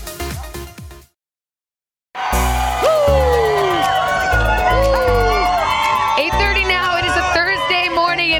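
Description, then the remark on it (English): A loud studio audience erupts in sustained cheering and whooping as Jennifer Lopez enters, after a brief silence, with a dense wall of voices and high excited shouts carrying on to the end. “The cheers just got a little bit louder.”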